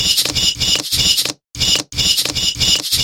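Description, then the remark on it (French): A looping percussion rhythm from a percussion generator that plays selected everyday noises: short scratchy, rustling bursts repeat in a quick, steady pattern, with brief gaps of silence breaking the beat. No one speaks. “Tu sélectionnes des sons sur la page, des bruits du quotidien, tu les déplaces sur l'écran, et le générateur les joue en créant un rythme que tu peux modifier comme tu veux.”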